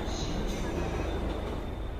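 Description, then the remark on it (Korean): A subway train rumbles loudly and steadily as it arrives at a station platform, a dense roar of wheels on track with a faint high metallic squeal running through it. “이윽고 전철이 요란한 소리를 내며 미끄러지듯이 도착했고 문이 열렸다.”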